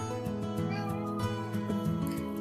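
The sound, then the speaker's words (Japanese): A pet cat named Fuuta, naturally very talkative and loud-voiced, meows loudly and insistently in a string of drawn-out, wavering cries that run together over a couple of seconds with no pause. “この子はうちのふうたくんはものすごくもともと喋るんですよ。あの、声も大きいし、いろいろね、ああだこうだ言いますね。”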